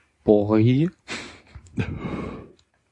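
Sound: cough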